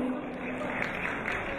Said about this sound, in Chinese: 让我们再次用热烈的掌声对他们的到来表示衷心的感谢以及热烈的欢迎，欢迎他们的到来。